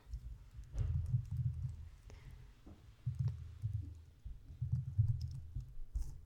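Loud typing on a computer keyboard near a microphone while going onto a website, with bursts of rapid key clicks and heavy low thumps, broken by short pauses between flurries. No one speaks.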